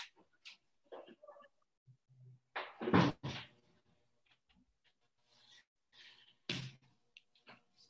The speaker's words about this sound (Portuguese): Deixa eu só fechar a porta aqui da, do escritório aqui.